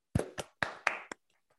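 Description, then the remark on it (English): A handful of sharp hand claps, five in quick uneven succession, fairly loud, followed by a few faint trailing taps before it falls quiet. The clapping is for Bohannon, Iowa's top-scoring basketball player. “So clapped up for Bohannon.”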